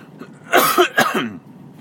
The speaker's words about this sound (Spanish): Había día, hacía, perdón, días, a ver si hoy la tos me deja, que parece que no. Hemos vuelto a los antiguos tiempos, ¿verdad? De la tos.